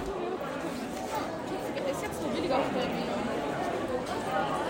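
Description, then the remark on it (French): Steady crowd chatter fills the Public Service Hall in Batumi, Georgia, many overlapping voices in Georgian, Armenian, Azeri and mostly Russian merging into a continuous murmur with no single speaker standing out, at an even, moderate level throughout, as people jostle for numbered tickets. “que vous entendez, c'est le brouhaha du Public Service Hall de Batumi.”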